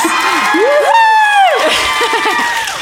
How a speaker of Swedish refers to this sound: Ja, kan vi ha en applåd för våra ex? Ja.